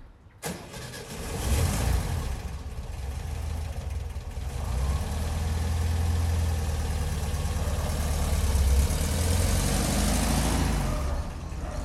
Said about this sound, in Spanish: Es de color rojo y, color salmón. Entonces cada día cuando, cuando ella está lista sale, sube las gradas porque nosotros vivimos en la planta baja enciende el auto